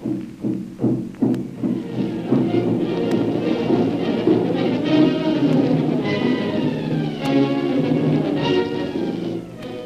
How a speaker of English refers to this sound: Tom toms beating in the jungle. What will the war drums mean to Jim and Kolu?